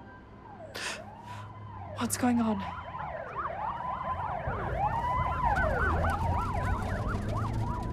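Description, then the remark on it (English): Several police car sirens wail at once as the cars wind through the streets of Kingswood, their rising and falling tones overlapping and growing steadily louder over a low traffic rumble, with a voice briefly speaking near the start. “We follow the police cars winding through the streets of Kingswood.”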